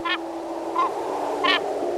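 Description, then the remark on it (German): Three harsh, nasal calls of a glaucous gull, an Arctic gull, ring out at roughly even intervals, each a short strained cry with a raspy edge, over a steady background hiss. “unser Vogel der Woche sein, die Eismöwe”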